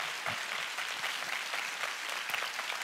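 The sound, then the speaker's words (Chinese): An audience applauds once more to encourage a group, steady for a few seconds, a dense wash of many hands clapping at once, bright and fairly loud throughout, with no voices on top. “我们再一次鼓励他们一下。”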